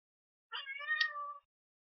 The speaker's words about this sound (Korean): 어, 어 고양이다. 간만에 고양이 목소리가. 아, 예. 음. 얘가 또 방해가 안 해요. 쫓아내야 되는데.